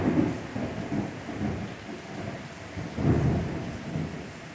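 Low rumbling thunder rolls in waves over steady rainfall during a storm in Puerto Rico, with a stronger swell of rumble partway through, moderately loud, no voices.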